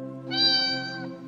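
A cat gives a single drawn-out meow lasting about a second, clear, with no voices or other sounds around it.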